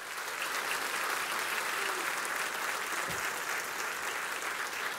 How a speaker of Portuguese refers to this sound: Dá um aplauso ao Senhor pelo que ele fez na tua vida.